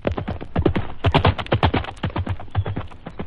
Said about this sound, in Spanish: Y dicho esto, partió como un rayo, cual si tuviera alas el caballo.